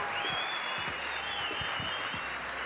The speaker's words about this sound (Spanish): Fuerte aplauso, loco.